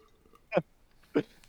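Someone takes a few sips of water: three short, soft gulping swallows spaced roughly half a second apart, with no talking in between.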